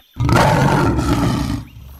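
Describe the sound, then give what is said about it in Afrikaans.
A lion roars furiously in one loud, sustained blast lasting well over a second, deep and rumbling with a rough, growling edge before it tapers off. “Hy brul verwoed en sê:”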